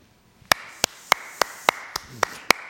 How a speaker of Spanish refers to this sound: Bravo. Te aplaudo, hermano.